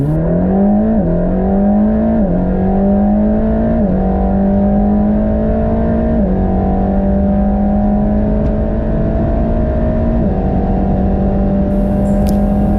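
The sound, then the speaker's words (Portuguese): An AMG M178 V8 engine from the AMG GT Black Series, an evolution of the M177 from the C63, revs hard, its loud low pitch climbing in repeated steps as gears shift, with a steady throaty roar throughout and no talking. “Não, caras, esse é o M178 do AMG GT Black Series.”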